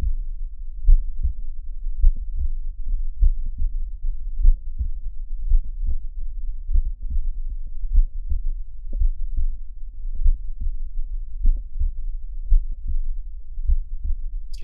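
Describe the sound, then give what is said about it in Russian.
Heart sounds through a stethoscope with early diastolic clicks, which resemble a pericardial friction rub: steady, repeating low thuds with sharp extra clicks between beats, muffled over a constant low rumble, with no voices. “Ранние диастолические щелчки напоминают шум трения перикарда.”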